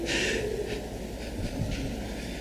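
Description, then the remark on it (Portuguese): Many pages rustle at once as a church audience leafs through their Bibles to Ezekiel chapter 36, a soft papery swishing with a few brief bursts, no talking, over a steady hum. “O reverendo Giovanni disse que semana passada que estava com saudade de ouvir a igreja folheando a Bíblia, está aí agora a oportunidade que você tem.”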